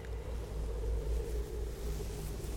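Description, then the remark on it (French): A steam train rumbles steadily with a heavy, continuous low roar and faint, slow pulsing, fairly loud, with no voices; the train is at a station in the rain. “Il ne voit pas le train, mais il entend un tchou-tchou et un gros souffle et des couics de roues.”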